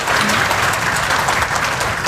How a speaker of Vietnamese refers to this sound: chào tất cả mọi người rất là hào hứng à hãy dành một tràng pháo tay cho chính tất cả chúng ta ở đây ạ